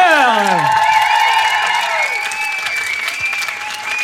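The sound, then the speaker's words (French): Warm, sustained applause from an audience after a live music performance, a dense wash of clapping that stays loud throughout, with a few rising whistle-like tones sliding over it at the start. “Merci à vous, public, de l'avoir chaleureusement applaudi.”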